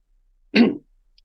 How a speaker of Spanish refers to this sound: Perdón, es que eh, me he puesto a toser y he puesto el micrófono en silencio.